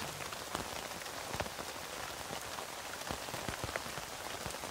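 Steady rain patters on a tent, a dense continuous hiss with distinct drops ticking through it, even in loudness, with no voices.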